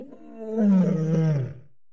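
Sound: creature roar sound effect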